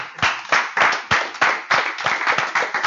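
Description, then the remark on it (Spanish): A group of people applauds together, a steady, dense patter of many hands clapping with a few louder individual claps standing out, lasting a few seconds with no one speaking. “Ok, un aplauso.”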